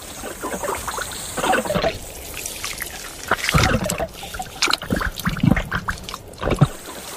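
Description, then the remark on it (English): Wet gurgling and squelching sounds bubble up in irregular bursts as giant earthworms squelch along their water-filled underground burrows, moderately loud, with no voices. “Those gurgling noises, believe it or not, are being made by giant earthworms as they squelch along their water filled burrows.”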